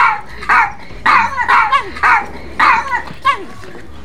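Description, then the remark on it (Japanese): A dog, Jiro, barks repeatedly in a quick, rhythmic series of about eight sharp barks, fairly loud, with a faint low hum in the background. “ああまたジローかなちょ興味津々な目で見てねジロー”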